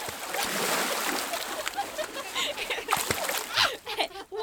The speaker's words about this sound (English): We're playing in the water with the canoe.